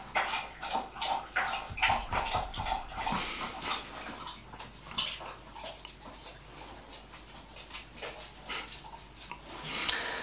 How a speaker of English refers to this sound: Sorry, the dog's just having a, um, a drink of water. We'll give it, we'll give it a minute.